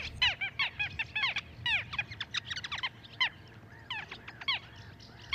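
Little gulls call in a busy flurry of short, sharp, nasal notes, many birds overlapping in quick bursts, fairly close, against a low rumble of wind or water.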